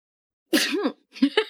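A single loud sneeze bursts out of silence with a voiced, throaty edge, followed by a few shorter, choppy breathy bursts as it trails off.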